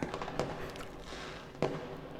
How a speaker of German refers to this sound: Ich hatte was vorbereitet. Feuerwerk.